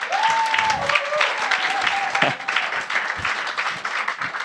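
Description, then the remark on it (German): Steady audience applause for a woman who performed live on stage fills the whole stretch, a dense wash of many hands clapping at an even level, with a faint whistle-like tone gliding briefly near the start. “Herzlichen Applaus”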